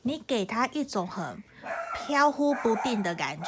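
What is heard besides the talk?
small dog barking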